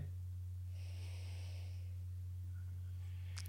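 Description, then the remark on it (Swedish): A deep inhale drawn through the nose, nostrils widened by fingers pulling outward and upward on the cheekbones beside the nose, lasting about a second, breathy, over a steady low electrical hum with no talking. “Och ni som lyssnar här kan faktiskt prova det, att om ni bara tar era fingrar på eh, kindbenen, precis vid sidan av näsan, så drar du ut lite mot kindbenen och så bara drar ni upp där och så andas ni.”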